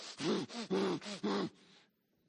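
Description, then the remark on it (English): A person imitates angry snorting through flared nostrils, as if raging mad: five quick, forceful nasal bursts in a steady rhythm, loud, fading into a short faint breath. “Think of when you are just raging mad and you're going,”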